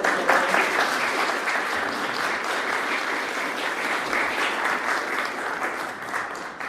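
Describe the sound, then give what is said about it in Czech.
An audience claps steadily for several seconds for a professor after his lecture, a dense, even patter of many hands with no voices standing out. “No, já bych přece jenom nejdříve zatleskal panu”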